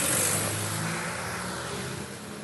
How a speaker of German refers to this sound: oh, es kommt natürlich erstmal so eine riesen Laster, lass mal einmal vorbeifahren, damit der Sound jetzt nicht so nervt.